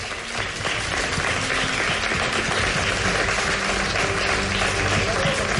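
Steady, dense applause from an audience for the 10 semifinalists of the Chula Melchangarro, who are asked to stand; a continuous wash of many hands clapping at an even loudness, with a faint murmur of voices underneath.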